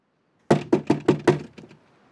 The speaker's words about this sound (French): Le lendemain matin, à 7 heures, le capitaine frappe à nos portes de cabine.